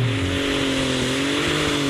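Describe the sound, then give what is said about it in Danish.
A loud, steady tractor engine roars and revs at a tractor pulling event, its pitch climbing gradually, without any talking over it. “Det er traktor, det her.”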